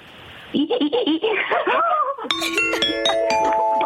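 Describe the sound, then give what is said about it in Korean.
A contestant on a radio show imitates a squeaky window being wiped with the mouth, with high, wavering rubbing squeals for about two seconds, then a bright ding-dong chime rings out and sustains. “창문 닦는 소리 한번 해보겠습니다.”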